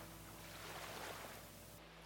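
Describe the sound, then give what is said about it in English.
Soft, steady splashing of gentle waves lapping, a continuous low wash of water with a faint hum underneath and no voices. “The two have a moment of silence, accompanied by the soft splashing of the waves.”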